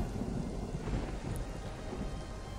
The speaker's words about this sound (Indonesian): Hujannya deras amat. Mana petirnya gahar-gahar pula. Gak tahu apa ya kalau gue tuh paling takut sama petir.